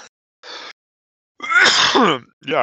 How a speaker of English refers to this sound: Oh man, am I yawning a lot? Stop yawning. Oh, wake up.